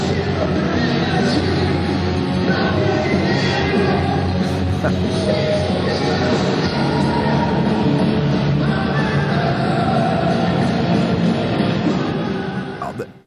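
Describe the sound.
A rough, distorted 14-second live recording of a rock band performing a song, with a loud, dense band wash and a singer screaming at the top of his lungs over it, steady and full for the whole stretch before fading at the very end.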